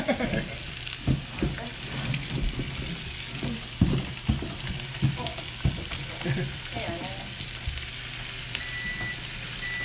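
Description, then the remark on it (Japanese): Meat sizzles steadily skin side down in a hot pan, a dense crackling hiss throughout with occasional clinks and scrapes of utensils, fairly loud, with faint background voices. “まずこっちからうん、おもうお肉を火がついてたんですねこれこの時にね、うん、えっとね、うん皮の方を下にやって最初おお皮の方を下に”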